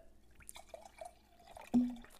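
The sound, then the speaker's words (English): Wine from a third bottle trickles and glugs into a glass in short bursts, ending in a fuller gurgling pour that briefly rings louder. No one speaks. “Just keep pouring.”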